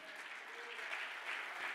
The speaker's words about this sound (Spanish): Dele un aplauso fuerte